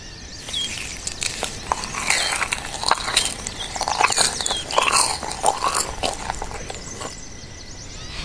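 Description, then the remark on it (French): Crunching of raw cauliflower being chewed, a steady run of crisp, bright bites and snaps over about eight seconds, loud, with no talking. “Tenez, goûtez-moi ce divin chou-fleur. Moi, cru, J'aime pas, j'adore.”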